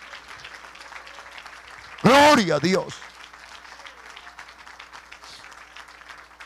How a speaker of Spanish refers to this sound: Ponte de pie y dale ese aplauso al Señor. Dele ese aplauso, dele ese aplauso al Señor, por favor, al Señor. Al Señor Dios Todopoderoso, ese aplauso.